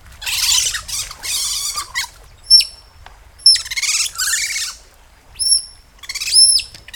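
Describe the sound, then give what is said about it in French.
Otter calls: a run of shrill, squeaky whistles and chirps in uneven bursts, some raspy and some clean and piercing, fairly loud with brief pauses between, no one talking. “C'est pas un oiseau C'est un rongeur Un c'est pas un ragondin. Il s'agit de la loutre.”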